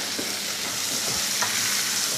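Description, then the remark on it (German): Steady sizzling of food frying in butter, a dense crackling hiss that fills the whole clip, with a few faint clinks of utensils stirring underneath. “Schnittenen Kolbsleber und Windeln gehen da gerade auf in der Butter.”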